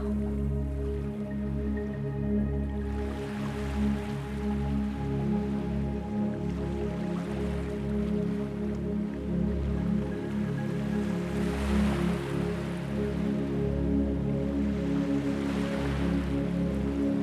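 Soft ocean surf washes in slow, recurring swells every few seconds, blended with a steady low, humming musical drone. No one speaks.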